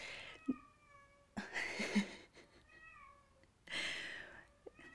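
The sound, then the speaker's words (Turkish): A cat meows repeatedly, with two long drawn-out, wavering cries separated by quieter pauses and a few soft clicks or thumps in between. “Durmuyor ki işte bir yandan da kedi.”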